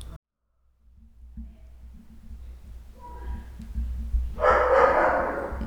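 dogs barking

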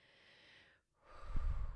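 deep breathing

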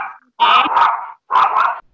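dog barking

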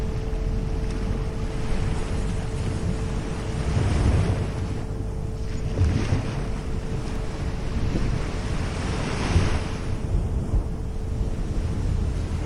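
ocean waves

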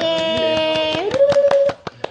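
hand clapping

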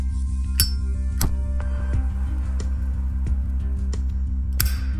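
drinking glasses clinking

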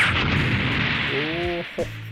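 explosion sound effect

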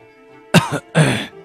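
throat clearing

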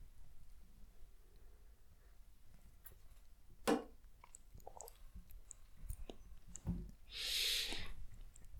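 sipping coffee

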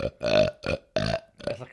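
burp

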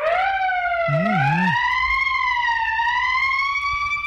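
siren sound effect

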